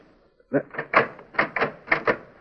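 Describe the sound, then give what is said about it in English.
A key is turned in the lock of a door locked from the inside. Someone reaches in through a door panel broken with an axe to turn it. It makes a quick series of seven or eight metallic clicks and rattles in an uneven rhythm, with nothing else around it. “Now I'll reach in and turn the key.”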